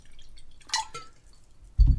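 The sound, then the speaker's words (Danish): Water is poured into a glass, heard as a couple of brief splashing, clinking bursts followed by a quiet pause and then a low, heavy thump near the end. No one speaks. “Jeg hælder lige noget vand op her.”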